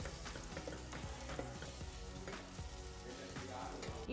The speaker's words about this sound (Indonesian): Bawang merah dan bawang putih ditumis dengan mentega yang telah dipanaskan, lalu ditambah daging sapi cincang